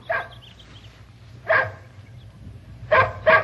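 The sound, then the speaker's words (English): A dog named Peanut barks four times in short bursts, one near the start, one in the middle, then two quick barks close together at the end, over a low steady hum, during obedience training with commands such as come, stay and sit. “Stay, boy. Good boy. Good dog. Sit.”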